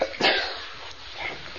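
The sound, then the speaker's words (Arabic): A single sharp, fairly loud sneeze bursts out near the start, then trails off into quiet, breathy silence with no talking. “يرحمك الله”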